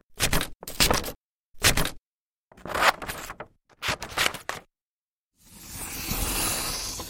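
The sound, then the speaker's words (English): A woman cuts paper with scissors for a musique concrète piece, a series of crisp cuts with short pauses, ending in a longer continuous slicing sound; no one speaks. “She's cutting the paper.”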